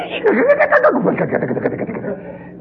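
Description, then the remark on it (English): A voice imitates the motor of an old refrigerator with a big round unit on top, a loud, continuous buzzing hum lasting a couple of seconds, wavering in pitch with a slightly pulsing, rattly texture. “Had a big round thing on the top, and every time it would go on, the floor would shake. The refrigerator would go,”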